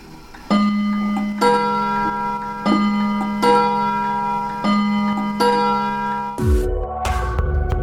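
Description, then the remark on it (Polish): A vintage clock from Toruń, made by the Predometron Metron factory in 1972, chimes a series of ringing, resonant tones in a steady rhythm, each note sustaining with bright overtones, followed by a brief low swoosh at the end. “Na koniec jeszcze jeden zegar usłyszymy, ten tutaj. To jest zegar e, toruński właśnie z fabryki Predometron Metron z 72 drugiego roku, z tego co pamiętam.”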